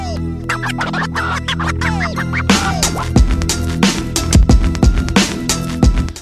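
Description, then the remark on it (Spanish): A self-produced hip hop instrumental beat with turntable scratches cutting in over a steady bass line, then heavy kick drums and crisp snares driving a loud, dense groove with no vocals. “Bueno, esta base que suena de fondo la terminé hará un par de días.”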